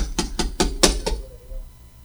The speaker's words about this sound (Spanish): Su esposa estaba embarazada, estaba a punto de dar a luz. Iba y tocaba una puerta.